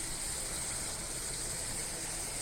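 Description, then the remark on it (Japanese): A river swollen by recent rains rushes steadily below the road where someone is walking in the morning, a dense, continuous roar of churning water with no pauses, loud, with no voices over it. “このところの雨の影響で今歩いてるところの道の下にある川がすごい勢いで流れてます”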